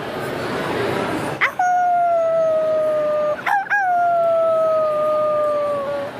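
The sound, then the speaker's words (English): A person at Comic Con, who voiced one of the main werewolves in the cartoon Guardians of Luna, imitates a werewolf, letting out two long, loud sustained howls, each starting with a sharp rise and holding a steady, slightly falling tone. “It was uh, called Guardians of Luna, and I was one of the main werewolves. And I gotta tell you, howling was a hell of a lot of fun.”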